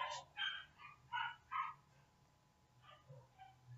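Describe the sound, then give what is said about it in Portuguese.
A neighbor's dog barks several times in quick, irregular bursts, a few louder yips early on and softer ones later, sounding somewhat muffled against a quiet background. “Nossa, não sei se está dando para escutar o cachorro latindo aqui, não é meu, é do vizinho.”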